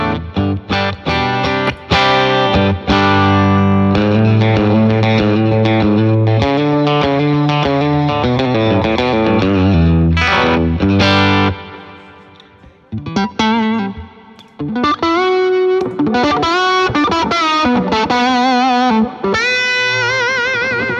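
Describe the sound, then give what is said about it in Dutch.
An old, slightly damaged Telecaster electric guitar played with effects and some distortion: sustained chords and melodic lines ring out loudly, pause briefly midway, then resume with brighter, busier picking. No one speaks. “Mijn oude telekassen.”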